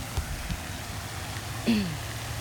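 A single short, nasal duck quack rings out partway through near water, over a steady low outdoor rumble with a couple of soft taps earlier on.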